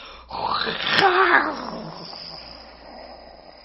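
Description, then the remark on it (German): A person, eyes wide open and tongue stuck out, lets out a rising, breathy roar in imitation of a lion, swelling loud for about a second before trailing off into a fading growl, with no talking. “Und noch einmal kannst du deine, deine Augen aufreißen und deine Zunge rausstrecken und brüllen wie ein Löwe.”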